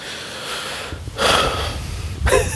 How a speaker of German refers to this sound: Hat man das tiefe Atmen gehört?